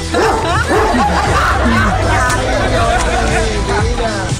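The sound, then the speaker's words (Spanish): A dog barks in repeated, loud bursts over a busy background of people chattering, with a few higher yips mixed in. “Amárrame tu mendigo perro”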